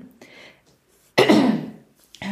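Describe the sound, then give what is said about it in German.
A single loud, rough throat-clearing cough from a woman bursts out into the mic, preceded by a few soft breathy noises and followed by a moment of quiet. “Ich muss mich an dieser Stelle äh, einmal entschuldigen, weil ich zwischendurch bestimmt äh, noch husten werde.”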